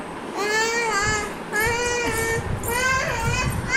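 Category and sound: human body sound, baby crying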